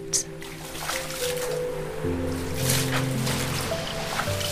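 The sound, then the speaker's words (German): Water splashes and surges continuously, as if something is rushing through waves, with sprays bursting up now and then over a steady low tonal drone, like music underneath. “Das Wasser spritzt dir nur so um die Ohren, als ihr hindurchprescht, schnell wie der Wind.”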